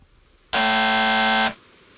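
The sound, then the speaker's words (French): A single loud, steady electronic buzz lasting about one second, harsh and harmonic-rich, as the gate buzzer of a villa is rung, starting and stopping abruptly over faint background noise. “Il le cache sous sa parka, et là, il retourne devant le portail pour sonner.”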